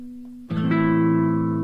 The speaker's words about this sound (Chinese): 就又听见私信的叮咚声